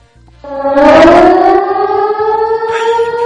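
A loud alarm siren wails up in pitch and holds a steady, sustained tone for about three seconds, with a low rumbling pulse beneath it and no voices.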